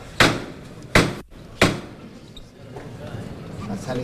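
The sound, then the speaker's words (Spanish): Three sharp, loud knocks from a processional float's knocker hammer as the float is about to leave through a doorway, evenly spaced about a second apart, followed by a murmuring crowd and voices in the background. “Ya los que están justo enfrente de la puerta lo ven salir, asomarse, se llama el martillo.”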